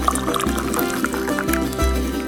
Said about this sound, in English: If you know anything about Iranians, they don't do anything without first grabbing a cup of tea, or as they call it, chai. So pour yourself a cup